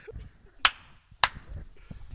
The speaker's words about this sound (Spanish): Bueno, para los que nos están escuchando, van a, eh, escuchar unos aplausos y esto es para sincronizar las cámaras.